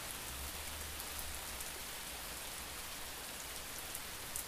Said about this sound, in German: Ja, dunkel, keine Sonne, Regen. Ja, das hört sich dann so an.